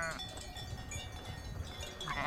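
Sheep bleat in a wavering, nasal chorus, with a loud call at the start and another swelling near the end, over a steady rural background.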